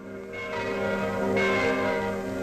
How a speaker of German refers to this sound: Die Glocken haben am Dienstagabend den Frieden verkündet. Die Worte unserer Bundesrätin. Am 8. Mai 1945. Die Glocken läuten das Ende des Zweiten Weltkriegs ein.